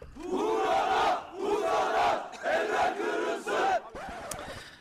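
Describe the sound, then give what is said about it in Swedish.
A crowd of about a hundred protesters outside the Swedish consulate in Istanbul chants in unison, loud rhythmic shouted phrases repeated in four bursts with brief pauses between, voices rising and falling together. “vi ska också lyssna på hur det lät utanför det svenska konsulatet i Istanbul då där ett hundratal personer hade samlats och dessutom bestämde sig för att bränna en svensk flagga.”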